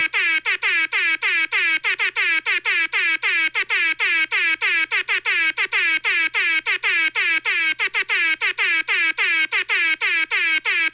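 A loud, close air horn blasts over and over in quick rhythmic bursts, short and longer honks forming a driving pattern for about eleven seconds with no talking.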